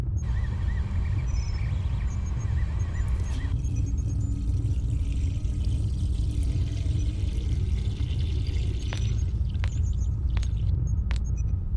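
Water pours steadily into a glass for several seconds, a gurgling stream over a heavy low rumble, ending with a few light clinks. No one speaks.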